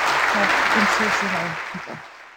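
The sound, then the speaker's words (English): A burst of dense applause with voices cheering and whooping over it as the winning name, Natty Skull, for a flaming skull is announced, loud at first and then tapering off toward the end. “Cheering.”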